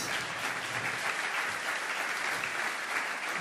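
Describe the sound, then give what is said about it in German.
Sustained applause from a sizable audience at the end of a sermon, welcoming a woman onto the stage, a dense steady wash of clapping that stays loud and even throughout with no voices standing out. “Gebt einen Applaus”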